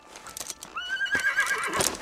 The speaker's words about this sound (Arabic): أنهت للتو حصاد البطاطا في مزارع نبراسكا وسط الولايات المتحدة وستحملها عربة الخيول إلى بلدتها شمالا في رحلة تستغرق خمسة أيام